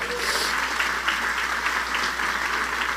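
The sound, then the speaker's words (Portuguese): Steady applause for the Lord from a crowd at a morning sermon, a dense, even patter of many hands clapping continuously with no pauses, fairly loud throughout and with no voices on top. “Dê um aplauso ao Senhor nessa manhã.”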